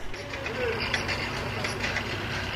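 Steady construction-site noise with a deep, continuous rumble of heavy machinery like excavators, plus faint clanks and mechanical rattles drifting in the background.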